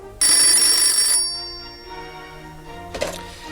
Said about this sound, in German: Plötzlich riss ihn das Klingeln des Telefons aus seinen düsteren Gedanken.